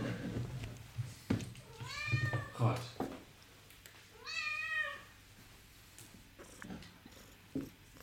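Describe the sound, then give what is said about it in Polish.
A pet cat wearing a little outfit meows twice at home, each cry a drawn-out, rising-and-falling call with a short pause between. A person briefly speaks, and there are a few soft knocks. “Właśnie fajne Tak mój kot chodzi po domu.”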